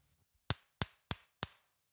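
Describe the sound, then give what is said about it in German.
Four sharp knocks on a window, evenly spaced in a quick steady rhythm, each a crisp bright tap that decays fast, with silence around them and no voices. “Die Augen gehen zu und Emil schläft fast ein denn auf einmal klopft es an das Fenster.”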